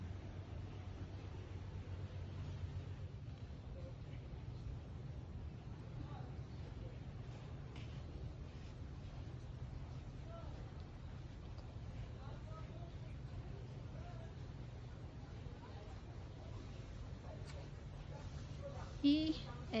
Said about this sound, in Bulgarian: навсякъде се чува течаща вода от басейнчетата във всяка вила.